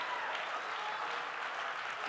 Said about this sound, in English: Can we clap our hands and give him praise?